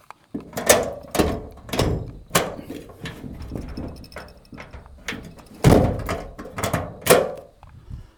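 A house door being closed and secured in the evening after dark: a series of loud wooden thumps, clunks and rattles spread over several seconds, with a heavier bang near the end and no talking.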